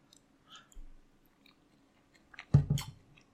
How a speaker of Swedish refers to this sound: Eh, där har vi en bit. Jag tar en tugga till. På en gång här bara.